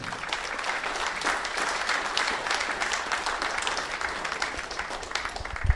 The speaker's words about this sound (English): You're going to hear him play again here with another young lad who's been who set the world alight there five minutes ago. Please put your hands together again